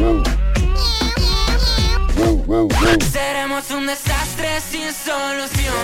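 A short snippet of a new, soon-to-be-released pop song previewed on social media, loud, opening with swooping meow-like vocal slides before settling into steady sung notes over a bass-heavy backing.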